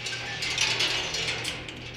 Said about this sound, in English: This is the Corning Museum of Glass. Like any self respecting museum about science, it's got one of those audiokinetic sculptures where marbles roll around on tracks and skitter across noisemakers.